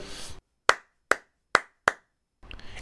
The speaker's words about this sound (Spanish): Este ritmo con las palmas. Vamos a tratar de seguirlo.